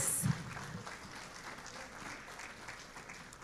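An audience claps steadily for a few seconds for the women who serve, a dense, even patter of many hands with a brief louder burst at the very start, quite soft overall.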